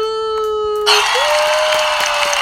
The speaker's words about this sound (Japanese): 歓声を上げてくれたよ、イエーイということだ